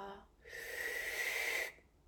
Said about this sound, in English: It's a big inhale through the mouth, followed by a little sip more, and then a nice release through the mouth. So when you're ready, big inhale through a straw,